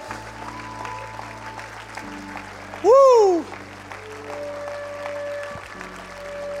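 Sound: audience applauding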